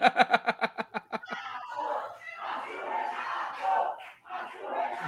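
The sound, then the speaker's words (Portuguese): A crowd chants in a quick rhythmic burst of about ten beats, then breaks into loud, sustained shouting and cheering that swells and dips for several seconds. “Ah, rapaz, agora, vão, agora vão gritar, viu,”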